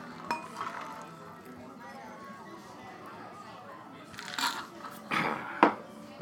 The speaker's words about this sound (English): Okay. And now pour that into my cocktail glass.